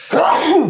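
One loud sneeze bursts out suddenly, a voiced, drawn-out blast that rises and falls in pitch over well under a second, with no talking around it.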